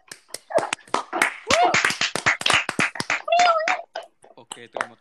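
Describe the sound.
A burst of quick, sharp hand claps from a small group, irregular and overlapping, with excited voices and a cheer mixed in over the top.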